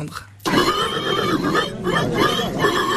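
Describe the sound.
A 28-year-old man from Pouligny-Saint-Pierre, Indre, imitates a loud, sustained pig squeal, shrill and harmonically rich, lasting about two and a half seconds after a brief quiet start. It is the winning call of a best pig-squeal contest at the Saint-Cochon festival in Angle-sur-Anglin, Vienne, France.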